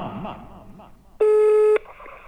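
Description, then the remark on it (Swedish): A single loud, steady electronic telephone ringing tone lasting about half a second as a call is placed to the speaker's mother, cutting in sharply after a stretch of soft talking voices. “Fak, fak, fak, fakiren ringer mamma.”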